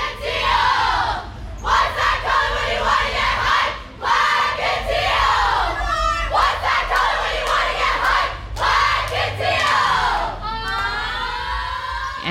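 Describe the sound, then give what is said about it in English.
A large crowd at a cheer competition shouts and cheers in loud, continuous waves, with overlapping yells and high-pitched voices that rise and fall, filling the space with energetic noise from start to finish. “I mean, it is just mayhem. It is so loud. It is so sparkly. There's so much excitement and singing and dancing.”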